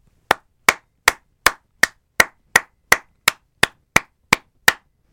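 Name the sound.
applause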